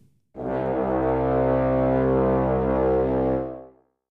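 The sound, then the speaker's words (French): A thick, layered synth tone on the note C1, panned and widened with the Utility Device stereo widener in Ableton Live, holds the single low note for about three seconds, loud and steady with a rich buzzing edge, then fades out on its own without any voices. “Voilà maintenant le résultat avec la répartition stéréo.”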